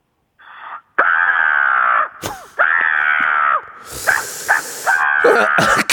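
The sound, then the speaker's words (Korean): A children's storytelling teacher who has imitated crows for 20 years calls in by phone and imitates a crow with a series of loud, drawn-out, raspy caws, several in a row with short pauses, the sound slightly thin and band-limited through the phone line. “우주 최강 까마귀 소리 신청 동화구연 선생님인데 동화구연 선생님 까마귀 전화 연결합니다.”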